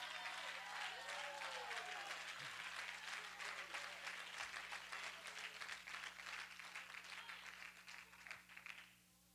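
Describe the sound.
An audience claps together in a dense, sustained burst of applause lasting several seconds, loud and steady before quickly tapering off, with a low steady hum and some faint voices underneath.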